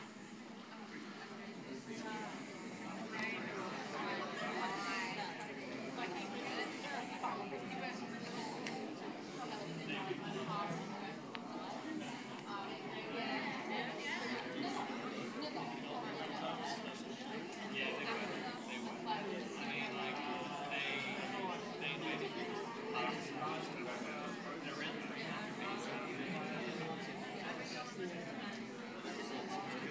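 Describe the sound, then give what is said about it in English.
A roomful of audience members chatting to each other at once, telling their partners what they know about the Roman Empire, a dense, steady babble of overlapping voices with no single speaker standing out, continuing throughout. “you've got about 30 seconds to a minute to tell them the dot points of every single thing you know about the Roman Empire”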